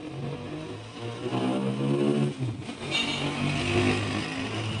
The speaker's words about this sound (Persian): بعد بعضی از این موتورا خدا شکر برای گوش هام که این صداها رو میشنوه